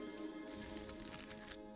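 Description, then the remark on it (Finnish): Soft, crackly rustling of large book pages being handled, with several brief crinkly bursts over a low steady hum and no one talking. “mutta sitten me taas hetken päästä kuulemme ison kirjan kahinaa”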